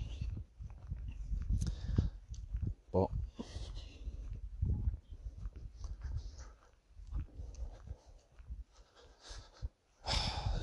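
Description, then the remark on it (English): A dog barks and vocalizes in a few scattered bursts over a low rumbling background with heavy breathing and movement noise. “I can't be asked with dogs that want to have a chat.”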